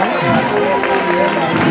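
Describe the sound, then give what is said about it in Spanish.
A large crowd cheers and applauds in a steady, dense roar, with many voices blending into the noise and no single sound standing out. “aplauso y los vítores.”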